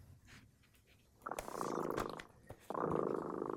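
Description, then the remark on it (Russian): A cat called Dremota purring, in two steady rumbling stretches separated by a brief pause, each breath-cycle of the purr loud and textured against a quiet background. “Слышите, кот Дремота запел свою песенку.”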